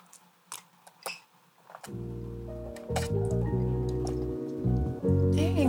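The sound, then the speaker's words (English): A few wet, squishy gulping and sipping sounds as people drink liquor, then sustained strained humming or groaning from several voices continues over the drinking until the end. “Let's do five seconds of uh, drinking.”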